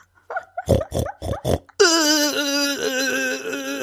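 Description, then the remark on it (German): A boar finishing ejaculating grunts in a quick run of four or five short, rough bursts, then gives way to a steady, high-pitched whining squeal that holds loud to the end. “ich, ich fange so an, so Mittagessen zu kochen und dann stelle ich mir meinen Timer und dann so, oh ja, jetzt so, jetzt ist der Eber fertig mit Ejakulieren.”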